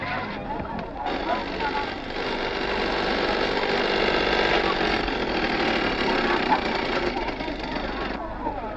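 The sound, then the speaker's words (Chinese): A police motorcycle arrives at a seaside beach, its engine running steadily for about nine seconds, a loud, continuous rumbling drone with a buzzing, idling texture. Indistinct voices are mixed in underneath. “突然，一辆警用摩托车来到这里。”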